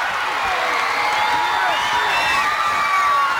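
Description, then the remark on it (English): A dense, sustained roar from a large wrestling arena crowd as a wrestling team comes to the ring, with overlapping shouts and high whoops rising and falling steadily throughout, loud with no clear pauses. “The crowd roars now as here come the Monarchs.”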